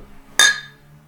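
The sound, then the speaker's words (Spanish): A single bright clink of glasses touching in a toast, clear, with a ringing tone that fades over about half a second against a quiet background. “Salud. Salud.”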